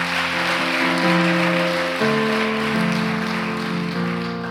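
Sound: audience clapping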